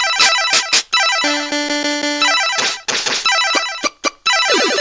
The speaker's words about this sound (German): Das sind also so Arcade-Geräusche.